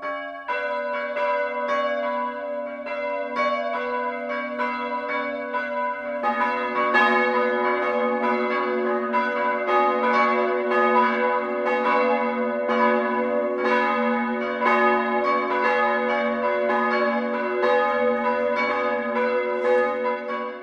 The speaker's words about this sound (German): Es ist 12 Uhr. Das Mittagsläuten kommt heute aus Engeltal in Mittelfranken.